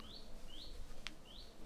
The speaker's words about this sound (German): das Ist ein Rotkehlchen oder irgendwas? Fliegt hier gerade rum.